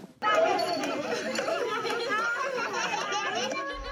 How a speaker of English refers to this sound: Back in Tana River County, and these are the sounds of children standing strong despite their adversities, of children who are still hopeful.